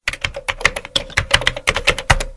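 Rapid, clacky keystrokes on a mechanical keyboard, fairly loud, in an uneven burst of about a dozen sharp clicks with no voices.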